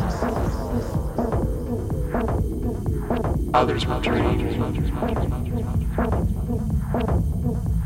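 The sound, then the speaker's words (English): Deep, heavy bass throbs loudly and continuously from speakers for the whole stretch, with a voice briefly audible over the pulsing low end. “The speakers were kicking out this beefy, deep bass.”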